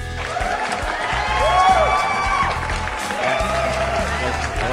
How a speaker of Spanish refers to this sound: que lo, ah, presentamos con estos aplausos.